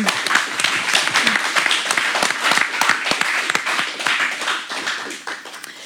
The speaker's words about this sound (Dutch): Mag een groot applaus voor de laatste finalisten.